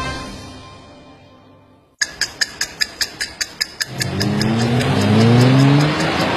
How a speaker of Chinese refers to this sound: 这段轰鸣声是迈锐宝 XL 从零加速过百的声音。雪佛兰迈锐宝 XL 搭载二 T 九黄金动力科技，七秒破百，生来就快。